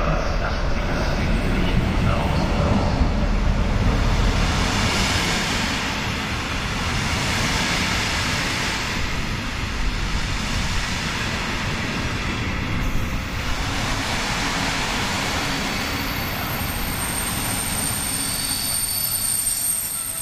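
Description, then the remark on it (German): An old local passenger train at Leipzig railway station rumbles by, its brakes squealing in a sustained high-pitched screech over the heavy rolling of wheels and carriages, lasting throughout at a steady, loud level. “Und zwar, das ist ein ganz alter Bummelzug, sage ich jetzt mal, den ihr vom früher kennt. Die Bremsen wird ihr erkennen.”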